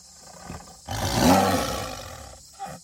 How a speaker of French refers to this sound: Professeur, derrière vous, un tigre Oui, oui, je l'avais pas vu celui-là. C'est parce que lui aussi était très bien camouflé grâce à ses rayures.